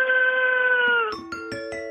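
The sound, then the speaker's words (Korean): A human voice imitates thousands of chirping cicadas as heard from somewhat far away: a steady, nasal buzzing drone for about a second, then five quick rhythmic pulses of the same buzzy tone, fairly loud and alone. “약간 좀 멀리서 듣는 소리예요. 아, 이거 봐. 이런 거 좋아. 수천 마리가 우는 소리.”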